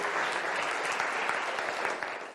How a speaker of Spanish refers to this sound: ¿Cuánto aprendimos algo hoy? Dele el aplauso al Señor, estamos de pie.